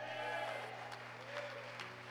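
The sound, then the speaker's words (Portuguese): An audience applauds the Lord in a soft, continuous wash of clapping, with a few sharper claps standing out, over a steady low electrical hum and faint crowd murmur. “Se você crê nisso, dê um glória a Deus e aplauda o Senhor e adoro.”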